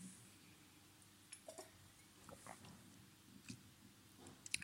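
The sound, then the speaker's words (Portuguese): Quiet sips of chilled white wine by a woman seated in a comfortable armchair: a few soft slurps and small wet mouth clicks, with a faint swallow, over low room noise and no talking. “mas agora eu vou beber um golinho deste vinho branco bem fresquinho.”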